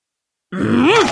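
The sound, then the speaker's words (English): After a brief silence, a person lets out a loud, strained grunt that swells and rises in pitch before dipping, like someone heaving against a heavy spinning wheel. “No, no, you sound like a very strong person spinning a very heavy wheel.”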